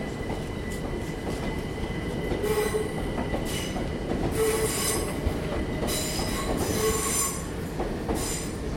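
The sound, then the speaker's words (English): An eight-carriage train rolls steadily along the rails with a constant low rumble, while high metallic wheel squeals rise and fade in repeated bursts over it. No voices are heard. “This train has eight carriages. Please mind the gap between the train and the platform edge.”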